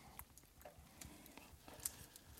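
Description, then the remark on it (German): A clock ticks quietly and steadily, a string of soft, sharp clicks about twice per second over a faint low rumble. “Bloß die Glock tickt.”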